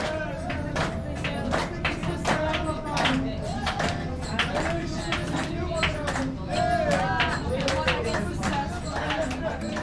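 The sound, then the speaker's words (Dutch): A group dancing in a circle claps in a steady, lively rhythm along to Arabic music while several voices sing and call out together over it, the sharp claps continuous throughout. “En ehm, ja, toen maakten ze iedere keer na het eten een soort van kring eh, waarin ze elkaars handen vasthielden en begonnen eh, te zingen en te dansen en een soort van ritmisch begonnen te klappen op, eh, ja, op de muziek.”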